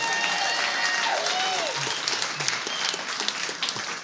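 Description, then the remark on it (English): A crowd applauds steadily for about four seconds for a 15-year-old boy who has stood up, a dense, even patter of many hands clapping, with a few faint voices and a brief cheer rising through it. “this is when you go, no applause, just cash.”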